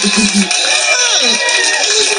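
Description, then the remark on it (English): A crowd claps and cheers steadily, a dense wash of applause with shouting voices mixed in, loud and continuous for the whole couple of seconds. “You guys can clap.”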